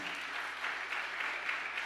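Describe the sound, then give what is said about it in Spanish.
An audience applauds steadily for about two seconds, a dense, even wash of many hands clapping at a moderate level with no voices over it. “Dele un aplauso fuerte.”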